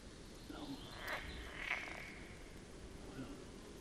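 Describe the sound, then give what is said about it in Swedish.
A pool frog calls nearby on the island of Örskär with a couple of short, buzzing croaks about a second apart, set against a steady outdoor hiss; the calls are fairly quiet and no one speaks. “Gölgrodorna på Örskär”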